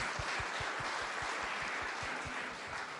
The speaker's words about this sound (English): So, round of applause for that 15 years.